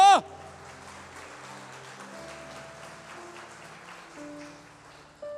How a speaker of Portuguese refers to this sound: E se você crer nisso, aplauda o Senhor Jesus Cristo bem alto.